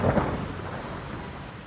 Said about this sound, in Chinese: 这个时候，外面恰巧下起了大雨，风雨声遮盖了一切声音